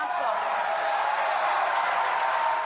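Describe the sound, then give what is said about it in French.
Sustained applause from deputies in the hemicycle of the National Assembly, standing on both sides to celebrate defeating the government in a vote, a dense, steady wash of clapping with no pauses, mixed with a murmur of voices. “Un tonnerre d'applaudissements et des députés qui se lèvent de chaque côté de l'hémicycle pour célébrer leur victoire.”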